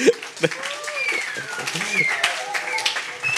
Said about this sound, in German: Können wir einmal einen äh, Shout, ich habe die Grafik bis heute noch, bis gerade noch nicht gesehen. Können wir einmal einen Applaus geben für das Design?